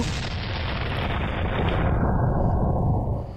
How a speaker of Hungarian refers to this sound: hogy itt a szökési sebességre gyorsítják, ami nem a föld körüli pályához szükséges, már említett 8 km per másodperc, hanem az annál gyökkettővel nagyobb mennyiségű vagy nagyságú sebesség, az 11,2 kilométer másodpercenként, és akkor elsül az ágyú